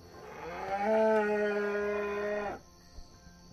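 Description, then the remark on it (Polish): A single long, loud moo from an ox, a steady droning bellow lasting about two seconds before cutting off, followed by quiet background noise. “zbliżacie się do niego, oczywiście wydaje swój standardowy odgłos.”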